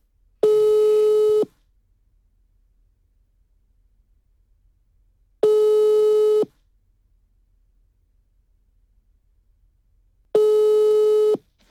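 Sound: telephone ringing tone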